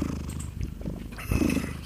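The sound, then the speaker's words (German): A sleeping cat purrs steadily, a low continuous rumble with a soft rhythmic pulse that grows a little louder near the end. “Du hast doch erst eine Katze, hallo. Stimmt, die kann das auch.”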